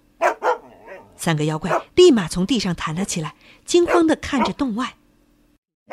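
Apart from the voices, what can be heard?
dog barking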